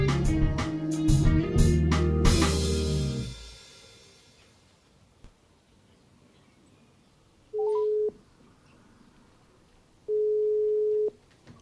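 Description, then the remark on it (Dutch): A phone line's ringback tone sounds twice, steady low beeps about a second long with a pause between, following a loud musical passage that ends abruptly. No talking. “Jij, jij zat al klaar bij de telefoon, begrijp ik.”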